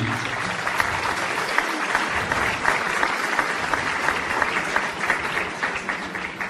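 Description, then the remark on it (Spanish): An audience claps steadily for several seconds, a dense wash of many hands at an even, fairly loud level with no voices rising above it. “Ya que estamos en, una sesión de aplausos, quisiera pedirles aplausos para algunos de los, de los ex conductores que quiero presentarles.”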